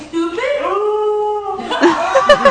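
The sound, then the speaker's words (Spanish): A female dog howls in a long, wavering, drawn-out tone, then breaks into rapid yips and whines whose rises and falls mimic human speech. Fairly loud, with no one else talking. “vamos a escuchar nuevamente esta última parte y dicen, el estúpido? No, dice.”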